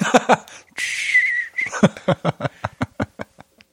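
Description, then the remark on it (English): A person imitates a red-tailed hawk's cry with a single raspy, breathy screech lasting under a second, followed by a run of rhythmic, fading laughter. “Oh god, red tail hawk eagle noise.”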